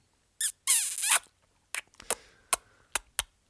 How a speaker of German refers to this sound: hör auf zu küssen. Nimm jetzt den, nimm den Mund jetzt da weg.